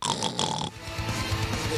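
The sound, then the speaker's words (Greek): A voice imitates snoring with raspy, rhythmic guttural snorts, following a brief higher-pitched tonal sound at the start. “Το χρ είναι ο ήχο του ροχαλιτού τώρα.”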